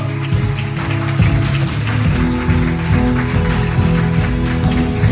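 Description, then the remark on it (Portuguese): An audience applauding the Lord, a steady, dense wash of many hands clapping that holds loud for about five seconds over sustained, low musical chords. “Aplauda o Senhor.”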